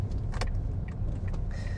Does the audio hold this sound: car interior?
yes